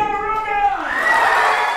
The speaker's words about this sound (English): More than 300 middle and high school students cheer from the wooden seats of Ticonderoga High School's auditorium. They're here for We Are Instrumental's first ever music summit.